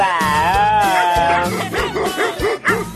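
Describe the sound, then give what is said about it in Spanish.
A pet dog lets out a drawn-out whiny howl, then breaks into a quick run of about five sharp, yappy barks, loud with no one talking. “Oiga, si yo le hablo a mi perro y él me entiende, y él me ladra a mí y yo no le entiendo, entonces el animal soy yo.”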